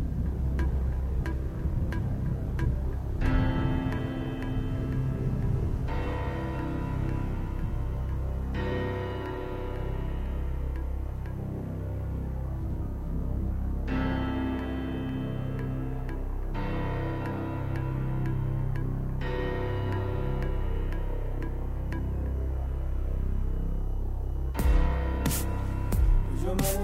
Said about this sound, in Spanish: Vámonos con esto. Esto es música nueva, nacional.